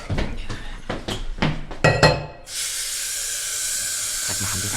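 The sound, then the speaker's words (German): Dishes and mugs clink and clatter in a quick series of sharp knocks for a couple of seconds as someone starts washing up a kitchen pile of about 50 unwashed mugs with dried tea rings, then a steady loud hiss of running water or steam takes over. “Der Typ hat seit mindestens zwei Wochen kein Geschirr mehr gespült. Und hier stapeln sich an die 50 Becher mit äh, eingetrockneten Teerändern.”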